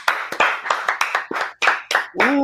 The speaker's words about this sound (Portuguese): se você confia na minha palavra, eu quero pedir uma salva de palmas